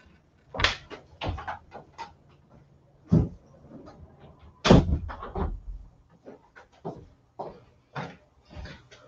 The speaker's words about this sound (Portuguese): Como tem neguinho martelando aqui, deixa eu só fechar a janela para a gente começar.